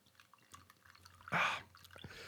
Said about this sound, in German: Also, pass auf während du eingießt